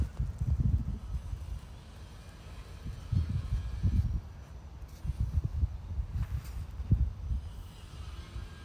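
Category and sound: animal, horses moving nearby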